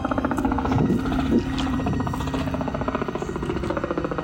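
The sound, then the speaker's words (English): A touring helicopter, not a Black Hawk, passes overhead, its rotor thumping in a steady, rapid rhythm with a low droning engine hum that stays loud throughout. “It's not a Black Hawk, it's just a touring chopper.”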